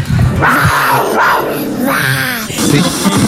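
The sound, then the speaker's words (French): A tiger roar closes out a loud burst of yelling, screaming-like voices, rising and falling in harsh sweeps before the deep growling roar takes over near the end. “Ce que j'aime vraiment, c'est l'espèce de tigre à la fin qui a aucun lien avec ce s'est fait avant.”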